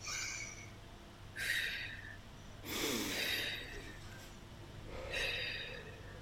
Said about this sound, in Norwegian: Men hvis en dyp eh, inspirasjon, altså et dypt innpust, vil trigge en hoste, så bruker jeg bare å fylle lungene litt med luft, og så puste helt, helt overfladisk.